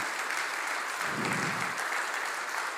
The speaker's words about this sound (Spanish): Podemos dar un aplauso a estas hermosas personas